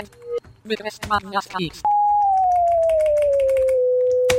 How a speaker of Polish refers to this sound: To są wykresy dźwiękowe, to znaczy mam teraz podaną funkcję mm, bez y, czyli y równa się 2 razy x. I teraz mogę sobie ten wykres mm, ten wykres może mi się pojawić poniekąd dźwiękowo.